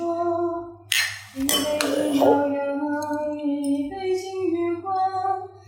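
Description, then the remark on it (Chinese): Glasses of alcohol clink together in a toast: a few bright, sharp chinks in quick succession, their ringing lingering briefly over a steady tonal background hum. “然后也感谢老板提供的酒，对，好久没喝了， 好喝， 好喝，好喝， 干杯， 来，干杯，干杯，干杯。”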